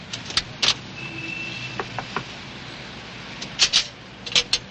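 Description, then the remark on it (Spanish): A chauffeured car idles steadily in front of a hotel while two elegant women climb in, with several sharp clicks and soft thumps of door handles and doors clustered at the start and again near the end. “Después está frente al hotel viendo cómo dos elegantes damas montan en un coche con chofer.”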